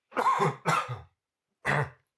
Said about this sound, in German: Hast du wenigstens die Armbeuge gehustet?